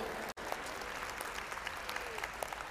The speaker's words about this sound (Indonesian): Tepuk tangannya agak sedikit ragu.